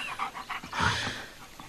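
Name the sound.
small dog panting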